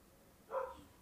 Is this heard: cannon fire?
no